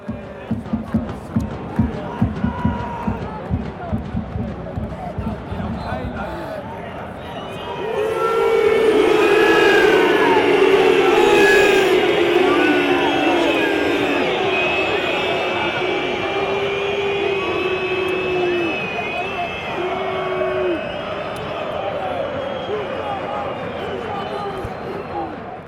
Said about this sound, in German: So, Derby, Halbzeit im Borussia Park. Gelnes Pfeifkonzert, völlig zu Recht.